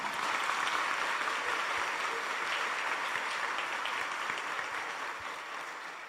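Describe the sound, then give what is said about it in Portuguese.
A crowd applauds for Jesus, clapping steadily for several seconds, a dense wash of many hands clapping at once that stays fairly even before easing off slightly at the end. No one speaks. “Aplaude Jesus, rapaz.”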